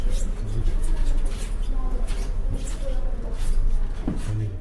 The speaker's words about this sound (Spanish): Este es el sonido del Valle de los Reyes y esto es lo que escuchamos cuando entramos en la tumba de Tutankamón